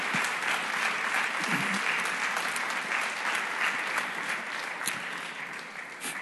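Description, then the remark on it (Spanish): A church audience breaks into sustained applause for the Lord during a sermon, a dense crackle of many hands clapping at once, steady and fairly loud before tapering off slightly toward the end. “Dale un aplauso al Señor porque Él se lo merece, porque solo Él se lo merece.”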